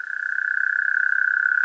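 frogs croaking

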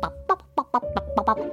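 rooster clucking

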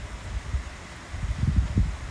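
rain falling at night

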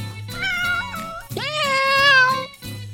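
cat meowing

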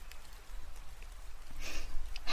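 rain falling

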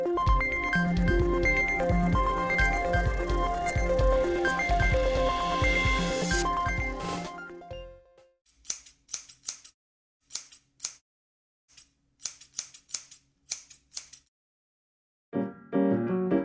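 scissors cutting hair

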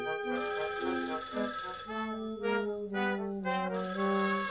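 telephone ringing

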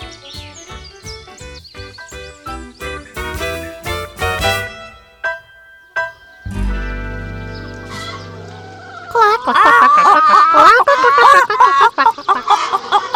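hens clucking

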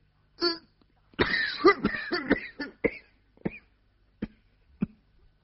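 violent coughing

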